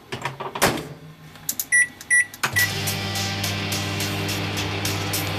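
A microwave oven starts up: a thud of the door, two short electronic keypad beeps, then a steady humming whir as it begins running, with no talking.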